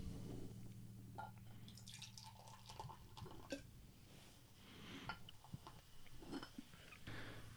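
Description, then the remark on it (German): Fruit wine poured into a glass: gurgling splashes and drips come in uneven bursts over a steady low hum, fairly quiet, with no talking. “Mal hier heute mal das Ganze in ein Glas schütten.”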